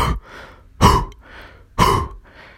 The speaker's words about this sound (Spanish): quiero que hagas un ejercicio y quiero que botes el aire con todas tus fuerzas como como si fueras a escupir, como si fueras a toser, que sientes como que el estómago